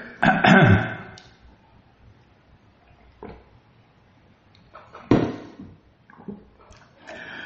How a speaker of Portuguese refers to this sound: Deixa eu tomar água, peraí.